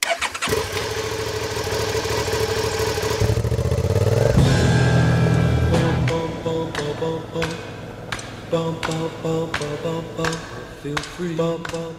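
A motorcycle carrying a pillion passenger starts up, idles briefly, then revs louder and pulls away from Braunlage toward the national park, its throaty drone rising and falling with repeated throttle bursts and gear changes.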